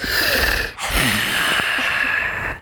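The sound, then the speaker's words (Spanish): A person imitates a dying dog's last gasping breaths: two raspy, strained, breathy exhalations, with a brief pause between them and a hoarse, noisy texture. “Y da su último respiro. Y le hace así como...”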